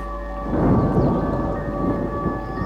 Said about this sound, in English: And that great heaven becomes dark above. And thunder rolls in.